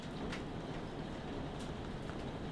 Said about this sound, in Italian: Wow, la pioggia non so se la sentite ma è veramente bella.